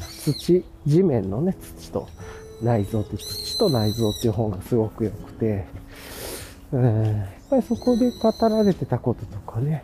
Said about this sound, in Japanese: なんかめっちゃ鳥鳴いてんな。